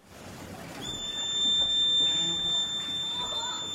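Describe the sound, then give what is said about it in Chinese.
A male sloth's high whistling mating call, summoning a female sloth: one long, steady, piercing note that begins after a brief pause and holds to the end over a low, rumbling background. “这个是相当于这个是公的树懒在召唤母树懒的一个口哨声，因为它们离得很远。”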